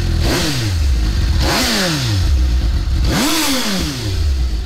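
A Japanese four-cylinder GSX S57 motorcycle engine on a stock exhaust revs three times in quick throttle blips, the pitch climbing sharply and falling back to a steady idle between each, loud with no talking.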